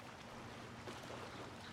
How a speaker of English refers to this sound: As Otter rows, she sings a song. Maybe you can sing along.